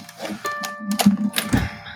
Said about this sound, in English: I need a keyboard to do the typing.